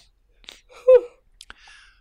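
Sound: yawn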